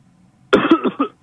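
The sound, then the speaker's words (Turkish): A single loud, rough cough made of three or four quick harsh bursts, lasting about half a second, breaking out of near silence with no talking around it. Someone whose voice has gone coughs when asked to. “Öks, öksür hocam.”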